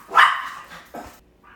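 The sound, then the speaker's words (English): A voice imitates a dog's bark: one loud, sharp bark, then a second shorter one and a faint trailing yelp. It is clear, with no other talking. “So we're just saying because we did a dog bark”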